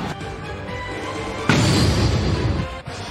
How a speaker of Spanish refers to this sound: Bueno, acaban de sonar los fuegos artificiales para anunciar que ya va a empezar eh, la noche de festividades aquí en el T-Mobile Park.